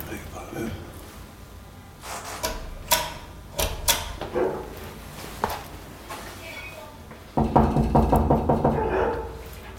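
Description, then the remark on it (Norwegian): Knocking on a door: a few scattered, sharp raps at first, then a loud, rapid burst of knocks near the end, with muffled voices in the background. “Bank på det Hva det banker på.”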